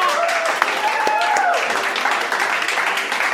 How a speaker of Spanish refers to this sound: ¡Felicidades! ¡Aplausos!